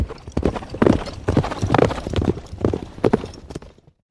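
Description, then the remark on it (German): Several horses, ridden by fleeing riders, clatter off at a quick gallop, a dense rhythmic run of loud clip-clopping hooves that fades out toward the end. “Die Herren kamen blitzschnell aus ihrem Versteck, griffen nach der Krone und sprangen auf ihre Pferde, um mit ihrer Beute zu fliehen.”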